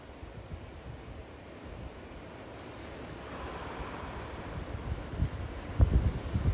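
Ocean waves wash steadily onto the shore in a broad, rushing roar, swelling louder toward the end with a heavier surge, with wind buffeting in the background and no voices.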